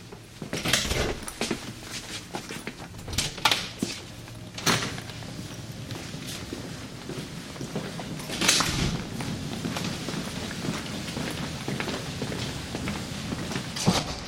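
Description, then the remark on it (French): Several doors of a theatre in a secondary school open and shut in turn as people pass through them to get outside, with sharp clunks and thuds scattered across a steady indoor hum, while footsteps move through in between. No one speaks. “Donc, on va passer à travers les différentes portes institutionnelles pour se retrouver à l'extérieur.”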